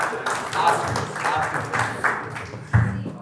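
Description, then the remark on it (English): A short burst of steady clapping from a small group, dense, with indistinct voices mixed in underneath for about three seconds. “should um, not, you um, should not be applauding that performance.”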